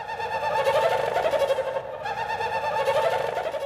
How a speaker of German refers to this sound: So klingt es in einer der außergewöhnlichsten Tropfsteinhöhlen der Welt im Libanon. Ein Forscher versucht, das Naturdenkmal zu erhalten.